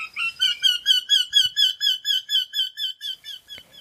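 A bird twitters in a fast, even series of about fourteen repeated high-pitched chirps, each a quick warbling note, steady in loudness and ending with a brief click.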